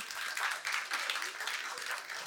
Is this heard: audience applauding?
yes